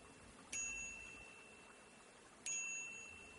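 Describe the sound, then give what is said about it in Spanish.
A bicycle bell on the handlebar is rung twice by hand, each bright metallic ding starting sharply and ringing out for about a second, spaced roughly two seconds apart against a quiet background. “coloca la mano sobre el manillar y toca la campanilla.”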